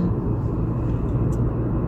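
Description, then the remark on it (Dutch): Steady low rumble of road noise inside a moving car driving home, a constant droning hum that fills the whole stretch without pauses or voices. “Ik ben dat in mijn auto aan het opnemen, dus sorry voor het lawaai.”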